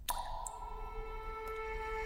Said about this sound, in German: Stille. Nichts ist zu hören, außer dem Tropfen der Wasserhähne.